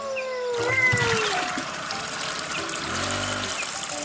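Water pours steadily into a water tank being refilled at the bank of the Graça river, a continuous splashing trickle that starts abruptly after a brief quiet moment and keeps going at an even level.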